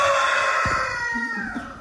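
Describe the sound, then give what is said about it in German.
A rooster from a plantation, walking around the house, crows loudly, one long, strained call with harmonic bands that holds steady and then trails off toward the end. “oh Gott, entschuldige wirklich, der Hahn, der ist die ganze Zeit ist er auf der Plantage draußen. Und jetzt, alles wo wir cool. hier aufnehmen, läuft er ums Haus und kräht.”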